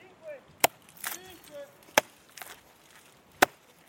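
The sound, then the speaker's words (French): A hammer strikes larch tree trunks in a forest in the Kera regional natural park, where Office national des forêts agents are marking trees to be harvested or protected: four or five sharp, woody knocks at uneven intervals, each loud and abrupt, while faint voices murmur in between. “Elle consiste à désigner au marteau ou à la peinture les arbres à récolter et à protéger.”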